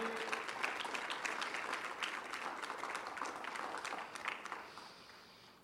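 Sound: audience applauding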